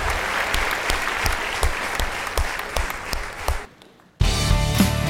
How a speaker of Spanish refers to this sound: Le damos un aplauso fuerte al Señor.